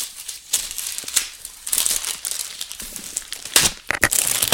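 Continuous crinkling and rustling of stiff brown wrapping paper being unwrapped from a package, with sharp crackles and a few louder tearing bursts, no voices.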